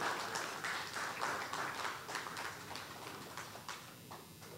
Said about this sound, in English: Go ahead, give her a clap offering.